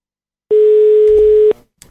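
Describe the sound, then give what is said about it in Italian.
A single steady electronic telephone ringback tone sounds for about a second while a call is placed, loud, then cuts off, leaving brief faint noise. “Stiamo sereni, eh, stiamo sereni, sta squillando, magari risponde, non vi agitate, vi prego.”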